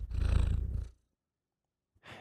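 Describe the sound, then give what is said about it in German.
A cat purrs loudly right up against the microphone, a deep rumbling burst lasting about a second, followed by silence and the start of another breathy sound at the end. “Chaui heißt die Katze von Fabi.”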